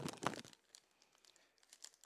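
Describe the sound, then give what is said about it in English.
A Kit Kat candy bar wrapper crinkles open, starting with a sharp tearing rustle, then trailing off into scattered, faint crackles of plastic over the next couple of seconds. “Pepper, and I start to open the Kit Kat.”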